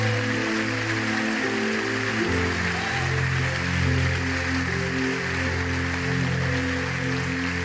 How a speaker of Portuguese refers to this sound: Quem pode dizer amém, dá um aplauso bem forte ao Senhor neste lugar.